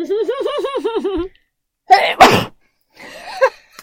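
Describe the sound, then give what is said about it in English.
Two sharp, loud sneezes in quick succession, preceded by a wavering, tremulous vocal sound and followed by a short breathy exhale. “But I I'm about to sneeze.”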